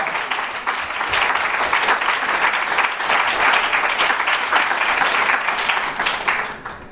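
Sustained applause from a crowd, a dense steady patter of many hands clapping for several seconds before tapering off slightly at the end.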